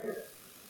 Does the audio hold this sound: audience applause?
no